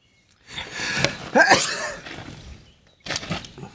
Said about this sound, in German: Ja, Gesundheit.